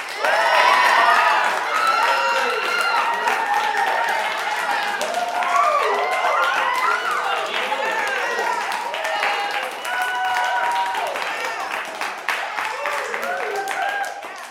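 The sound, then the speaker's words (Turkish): A crowd applauds with steady, dense clapping, mixed with many voices cheering and calling out at once. The sound stays loud and continuous for about fifteen seconds. “alkış alkış alkış.”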